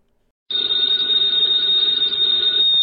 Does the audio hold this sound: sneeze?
no